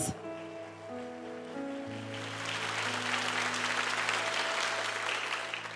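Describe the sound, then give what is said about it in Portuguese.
An audience applauds, a dense crackling clatter that swells and holds steady, with sustained low keyboard chords droning underneath throughout. “Aplausos os nossos queridos.”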